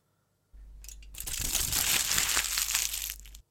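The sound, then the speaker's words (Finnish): Aluminium foil is crinkled and crushed for about three seconds, a dense, bright rustling crackle that swells in the middle and then stops abruptly, with no voices. “No on se folion rapina.”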